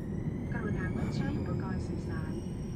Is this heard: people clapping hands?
no